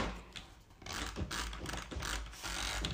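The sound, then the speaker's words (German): A flurry of sharp computer mouse clicks from rapid double tapping, letting a finger fall onto the mouse so it registers several clicks instead of one; irregular bursts of quick mechanical ticks over a noisy background, with no voices. “Und dabei dann halt statt einem Klick, jetzt habe ich gerade fünf.”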